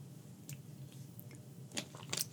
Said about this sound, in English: I need to drink some water real quick because my throat feels dry as fuck.